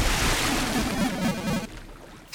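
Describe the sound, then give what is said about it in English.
A loud splash into water as someone is blown over a castle wall into the moat, with a burst of churning, sloshing noise that rolls on for over a second before abruptly dying down. No one speaks. “A primal roar was unleashed, blowing Slash backwards, up and over the castle wall and into the moat with a splash.”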